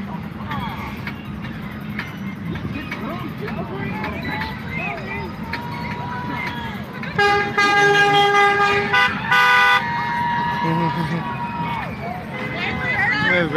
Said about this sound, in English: The sights and sounds of the Center Point Annual Christmas Parade.